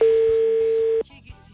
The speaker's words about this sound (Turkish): Son bir kere daha çaldırayım ulaşırsak ulaşacağız ulaşamazsak bay bay.